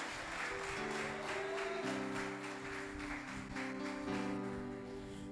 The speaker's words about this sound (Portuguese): Só quem recebe essa palavra, aplauda e glorifica o nome dele nessa noite.